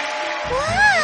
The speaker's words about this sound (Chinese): 聚光灯打开，舞台下的观众挥着荧光棒欢呼。